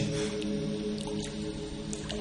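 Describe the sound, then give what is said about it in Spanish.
A bubbling fountain of pure water gurgles steadily and continuously, with a few brief drip-like splashes rising above the flow, at a moderate level with no voices. “Una fuente de agua pura y burbujeante”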